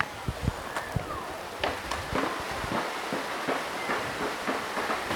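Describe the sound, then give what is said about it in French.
Heavy rain pours down in Fontenay in a steady, dense hiss, falling on a chalk mandala drawn on the ground, broken by irregular sharp taps and splats of drops striking a hard surface. No one speaks. “Il pleut là bah oui, il pleut grave. On l'entend, micro Je crois qu'on l'entend.”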